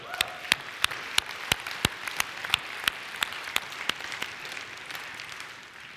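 An audience applauds: a dense wash of clapping with sharp, evenly spaced claps standing out in a steady rhythm, holding at a moderate level before easing slightly at the end.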